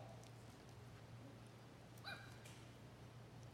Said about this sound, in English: Is that a dog? There's a, it's a dog over here.